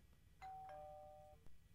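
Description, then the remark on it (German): A two-note electronic chime, an incoming call alert, rings out clearly, its tones sustaining for about a second before a brief click at the end. No one speaks. “Oh, wir kriegen einen Anruf gerade.”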